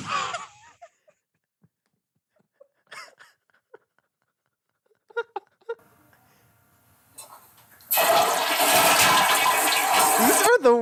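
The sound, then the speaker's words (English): A few faint clicks and small sounds, then a loud toilet flush rushes in, a dense roaring gush of water filling the last few seconds. “I just looked at a toilet flush sound effects.”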